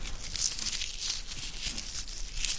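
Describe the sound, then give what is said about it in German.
Continuous crinkling and rustling of fine, thin, paper-like wood shavings being picked up, crushed and turned over in the hands, steady for a few seconds with no voices. “Ich habe hier gerade ein paar der Holzspäne aufgehoben und die sind ziemlich fein und dünn, eigentlich so ähnlich wie Papier, nur sehen sie halt nicht so aus.”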